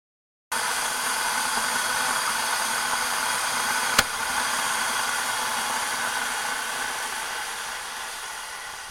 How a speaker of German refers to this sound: Das Teewasser kocht.